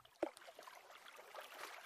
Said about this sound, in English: The goat also jumps into the well and makes a big splash.